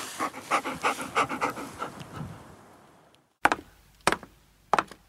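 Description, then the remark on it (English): Rain, a female Labrador, pants in quick, rhythmic breaths for a couple of seconds before trailing off, followed by three sharp, separate taps or knocks spaced through the remaining quiet. “Well, it's Rain come to join me. Good girl, are you back? Rain, say goodbye.”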